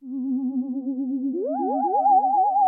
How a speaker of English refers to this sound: I, I, don't know how to make the podcast any spookier other than producer Finn putting a ghost sound effect in right here.